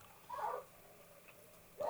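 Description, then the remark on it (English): A dog barks twice, with short, fairly faint bursts separated by a pause of more than a second. The barks seem muffled, with no talking. “we got a dog. Can you close that window”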